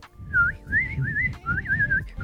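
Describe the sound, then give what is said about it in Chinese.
A person whistles a soft, high warbling tune in a few short rising-and-falling phrases, imitating the gentle song a magpie makes during courtship and while raising its young, with a low rumble of background noise underneath. “喜鹊它在求偶和育雏的时候，它有一个非常温柔的那个。”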